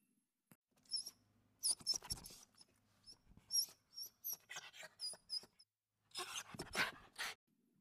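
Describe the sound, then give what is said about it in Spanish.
Soft, high-pitched whimpering squeaks like a frightened puppy, coming in a quick, irregular run of short cries with brief pauses, fairly quiet, with no talking. “Aunque están asustados, ven por la ventana cómo les mira un animal que no reconocen, porque tiene el pelo de muchos colores y sus ojos son amables, aunque Parece que les tiene miedo, porque hacen unos ruiditos como de perrito asustado.”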